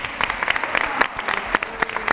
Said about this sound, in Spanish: se merece un aplauso, yo creo, ¿no?